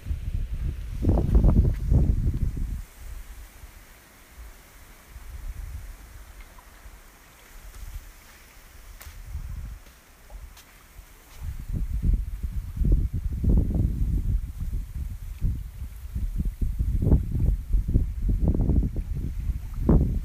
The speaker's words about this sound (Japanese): 次に葉っぱの音